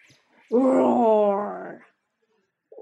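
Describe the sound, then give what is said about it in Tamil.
One loud, drawn-out roar in imitation of a lion, voiced by a person for a story's lion roaring at its own reflection in the water of a well: a tonal, groaning growl lasting over a second, swelling then tapering off, with silence around it. “அந்த தண்ணியில இந்த சிங்கத்தோட முகம் தான் தெரிஞ்சது இதுதான் முட்டாள் சிங்கமாச்சே இதோட நிழல் தான் அந்த தண்ணியில தெரியுதுன்னு புரிஞ்சுக்காம அதோட நிழலை பார்த்தே கத்திச்சான்”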